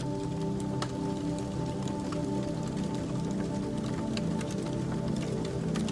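A steady crackling fire with frequent sharp pops and snaps scattered over a low, continuous roar, moderately loud, with no voices.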